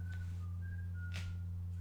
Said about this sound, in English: Who the fuck is whistling, bro? God damn, this mic is so goddamn powerful, bro picks up every goddamn thing in the house.